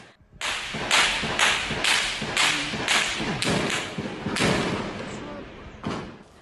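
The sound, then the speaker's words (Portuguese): A rapid series of sharp, loud cracks fires off about twice a second, each one echoing briefly: a gunfire exchange between criminals and military police, civil police and federal highway police officers in a community. “Os criminosos trocaram tiros com homens da PM, da Polícia Civil e da Polícia Rodoviária Federal.”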